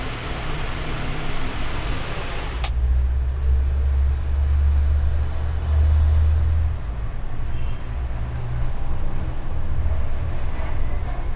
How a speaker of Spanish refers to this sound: Y es imposible no escuchar los autos. La moto de este momento